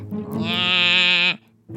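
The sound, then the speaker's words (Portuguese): A voice imitates a creaking bed, saying "Nhá" in one drawn-out, nasal, tonal creak lasting just over a second, loud, followed by a brief pause and another short vocal sound. “A cama fazia Nhá!”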